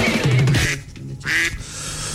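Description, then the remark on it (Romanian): Ducks quacking loudly in two nasal, raspy bursts in the Romanian children's story Morning Glory, the ducks and the hunters: a busy cluster of quacks, a brief pause, then another short round, with no talking. “Morning Glory, Morning Glory, rațele și vânătorii.”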